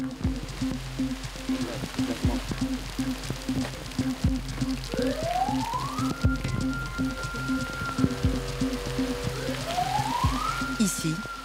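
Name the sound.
heavy pouring rain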